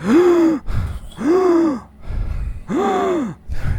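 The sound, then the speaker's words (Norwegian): A person imitates a dying knight's gasping: three strained, drawn-out gasps, each a voiced, rising-then-falling groan with short ragged breaths between them, fairly loud. “T springer bort til ridderen, ja, det gjør han. som fortsatt gisper og sier”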